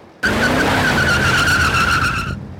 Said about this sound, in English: With a squeal of tires, the inferno bore down on my family.